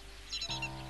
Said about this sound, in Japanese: 森に響く鳥の声